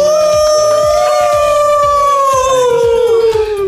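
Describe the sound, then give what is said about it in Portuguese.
People imitate a wolf howl: one long, loud, sustained cry held for several seconds, slowly sliding downward in pitch, with no talking. “Muito prazer, nós somos a Alcatéia Empreendedora e esse é o Na Boca do Lobo! Aú!”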